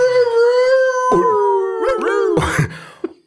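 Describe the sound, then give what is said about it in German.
A dog howls in long, drawn-out wavering tones, pitch sliding slightly as the howl breaks into a few shorter pieces, ending with a rough, breathy burst and a faint yip. “Also, um, oh, da ist ein, ein Polizist und da ist ein Hund, ein Kollege, ein Kollege von mir,”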